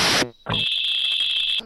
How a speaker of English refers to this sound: Wow, that, that was that was a modem.